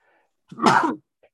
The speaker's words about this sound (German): Ich muss kurz niesen.